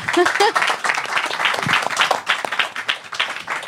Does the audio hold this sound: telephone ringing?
no